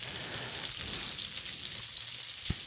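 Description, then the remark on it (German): Steady, hissing sizzle of food frying in a pan, a continuous crackly wash of oil noise with a single soft knock near the end. No one speaks. “Jetzt habe ich schon welche in die Pfanne geschmissen.”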